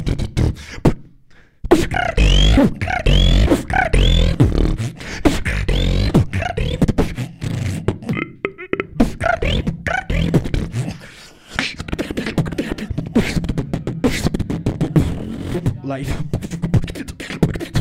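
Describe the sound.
A beatboxer performs in a beatbox battle, a loud, continuous routine of rapid, rhythmic percussive mouth sounds mixed with pitched vocal sweeps and hums, with a brief pause near the start.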